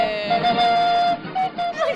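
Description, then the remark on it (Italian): A thin, cheap-sounding flute plays a short tune of long held notes with brief gaps over a busy backing track, fairly loud: a cheap flute version, not the original, of the closing song of the radio show Radio Statale. “È quella scrausa con il flauto.”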